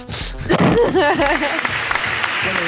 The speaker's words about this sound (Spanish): Aplausos.